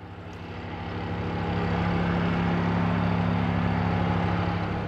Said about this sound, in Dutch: Nou, op die damwand hè, komt een hele grote kraan met een heiblok. En dat heiblok dat zit als het ware bovenop die damwandplank. Hè. En die soort die begint te trillen. En door die trillingen komt er energie in die damwandplank.